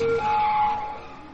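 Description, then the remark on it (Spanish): An ambulance siren in the street blares steadily, stepping from a lower tone up to a higher one, fairly loud, then fading slightly toward the end with no voices present. “Carmina escucha las sirenas.”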